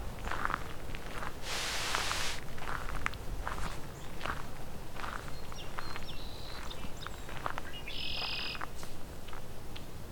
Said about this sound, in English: Song sparrow.